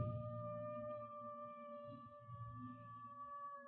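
Coyotes howling at night, a long, steady, drawn-out cry held for several seconds over a low rumbling background, with no talking.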